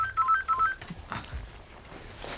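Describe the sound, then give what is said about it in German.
A mobile phone rings with a short, bright electronic melody of quick alternating beeps, clear, lasting under a second before fading into quiet background noise; the call is from an unknown caller. “Mein Handy.”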